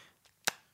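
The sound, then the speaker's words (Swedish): A flip phone snaps open with one sharp plastic click, preceded by a faint softer tick, otherwise quiet. “Jag har ju en, en sån här nymodig telefon och en sån här som låter så här när man öppnar en klick.”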